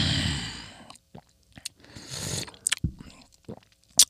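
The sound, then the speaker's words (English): Soft slurping sips of hot tea, followed by a swallow and scattered wet mouth clicks and small gulps; no one speaks. “Get a sip of my tea.”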